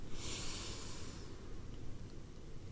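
A soft, airy intake of breath through the nose during a relaxation exercise rises and fades over about a second, followed by quiet stillness with a low background rumble; no one speaks.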